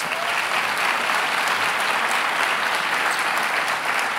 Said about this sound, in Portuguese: Dê uma salva de palmas às Escrituras.